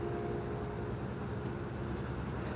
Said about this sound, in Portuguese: Tá passando um caminhão, vai fazer um barulhão é retado aqui. Deixa eu mostrar aqui onde eu tô sentado pra vocês. Lá vai o caminhão.